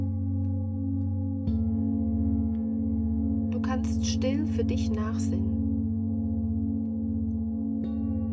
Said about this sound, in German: Die Klänge der Klangschalen begleiten dich.